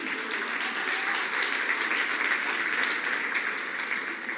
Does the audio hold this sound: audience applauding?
yes